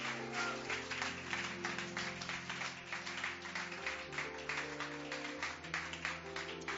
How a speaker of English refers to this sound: Clap your hands and bless the name of Jesus.